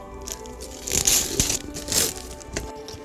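Christmas gift wrapping paper being torn open: a few loud, crackly rips and crinkling bursts, with rustling handling noise in between and no voices.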